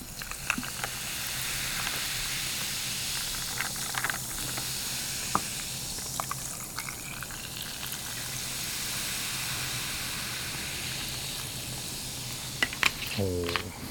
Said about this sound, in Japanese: 炭酸水ですね、はい、まあ、基本的には氷に当てないようにあの注いでいただくと炭酸は抜けず